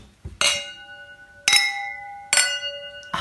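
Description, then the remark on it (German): Wine glasses clink together four times in a toast, each strike a bright, ringing chime with sustained tonal overtones that fade before the next. Fairly loud, with no talking. “Wir genießen ihn einfach. Richtig. Prost.”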